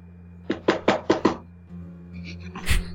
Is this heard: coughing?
no